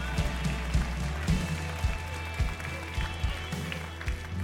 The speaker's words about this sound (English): Give the Lord a clap offering. Amen.